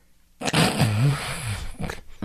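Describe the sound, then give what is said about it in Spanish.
After a moment of quiet, a voice imitates the loud, rasping snore that follows a breathing pause (apnea) as breathing resumes: one long, rough gurgling intake that wavers in pitch for nearly two seconds, then breaks off with a short snort. “Así es, viene otra vez un ronquido diferente que puede ser más intenso o puede ser una exhalación.”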